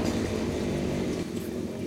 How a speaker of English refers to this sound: now we just have a motorbike uh, coming in, but uh, I'm sure it will go away again.